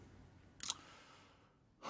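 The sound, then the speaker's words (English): A soft, breathy yawn drawn out, with a short airy exhale and another breath starting at the end; no one speaks. “You you said that you made me yawn.”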